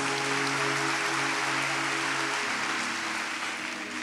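An audience applauds steadily in praise of the Lord Jesus, a dense, continuous wash of clapping with a low sustained tone humming underneath, holding at an even loudness for several seconds with no talking.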